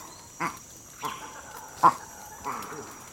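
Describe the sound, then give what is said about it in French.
A Campbell's mona monkey gives four short, hoarse calls spaced about half a second to a second apart, moderately loud over a steady low background hiss. “un singe, et plus précisément une mône de Campbell.”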